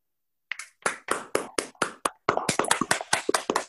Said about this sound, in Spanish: demos un fuerte aplauso al doctor